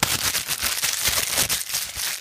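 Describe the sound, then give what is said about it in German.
A voice imitates the rustle of crisp bags opened by an audience in a cinema as the film starts: a steady, hissy crackling with bright, crinkly bursts, fairly loud and continuous for about two seconds, with no words spoken. “zu knabbern vielleicht nicht, aber die Tüten, das ist ja das Schlimmste.”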